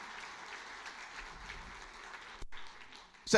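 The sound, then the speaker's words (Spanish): An audience breaks into sustained applause for God, dense overlapping clapping that holds steady for a few seconds, drops out for a split second, then swells louder at the end. “No, denle el aplauso a Dios, él se lo merece.”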